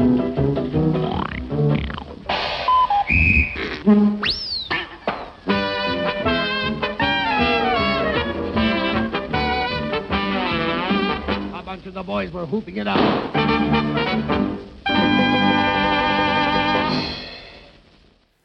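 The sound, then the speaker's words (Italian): A 1940s comedic novelty arrangement of a classical piece plays with muffled, old-recording tone, zany honks and squeals among the band, a spoken line over it, then a bright finish that fades away. “Abbiamo ascoltato la rilettura irriverente che … ha fatto negli anni 40 del secolo scorso del Liebestraum di Franz Liszt”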